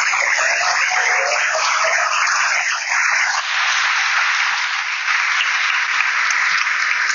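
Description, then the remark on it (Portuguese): An audience claps steadily for several seconds, a dense, loud wash of applause with no gaps, its texture shifting slightly partway through but never fading out. “Vai, ver uma salva de palmas para a”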